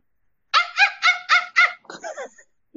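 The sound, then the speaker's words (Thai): A person imitates a dog as a sound cue after a question, giving five quick, evenly spaced barks, then a short, squeaky whimpering sound before falling quiet. “หมาก็เลยทำเสียงหมาเอาเอาหมาเหรออ่ะลองลองดิลองดิ”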